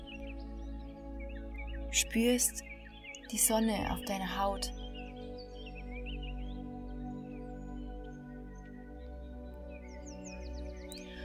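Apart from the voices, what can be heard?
birds chirping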